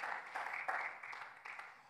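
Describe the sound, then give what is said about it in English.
An audience claps steadily, a dense, crackling patter of many hands that rises in a few small surges and stays fairly soft throughout, with no one talking over it. “Now clap.”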